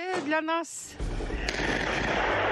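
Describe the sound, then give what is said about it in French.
A brief voice at the start gives way to heavy artillery fire from a Russian military exercise near Ukraine's northern border: a deep boom and rolling, sustained rumble, with a second sharp blast following moments later, loud. “Cet arsenal militaire, le voici, en plein exercice.”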